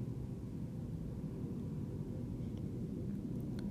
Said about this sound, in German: Nicht ein Mucks, nicht einmal ein Rascheln, außer das Flugzeug, was über den Himmel flog.